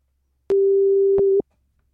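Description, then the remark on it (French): A single steady electronic phone tone sounds for just under a second, clear, like the ringback heard while an outgoing call rings, with small clicks at its start and end; the call is placed for a quiz and goes unanswered. “Hop là, ça va sonner. Attention.”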